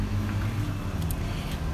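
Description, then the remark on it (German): Heavy street traffic in Medellín, Colombia, with a dense low engine drone and brief hissy swells as cars pass, continuous and fairly loud with no voices. “tut mir leid, hier ist gerade voll viel Verkehr und äh, ich bin in Kolumbien, in Medellin gerade und es ist super viel Verkehr”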